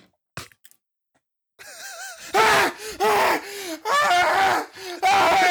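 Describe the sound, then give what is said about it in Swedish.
A voice imitates a man burning, letting out strained, anguished wails and gasping cries in several loud bursts after a brief quiet start. “Någon som brinner, typ en man som brinner.”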